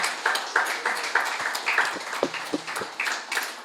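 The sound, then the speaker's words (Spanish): A small audience applauds, a steady patter of many hands clapping with a few sharper, more pronounced claps standing out, moderately loud and without any talking over it. “Quiero que le den un aplauso por lo que están haciendo.”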